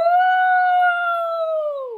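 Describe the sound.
A human voice imitates a wolf howl, holding one long, steady, fairly high-pitched tone for about two seconds before it trails off at the end.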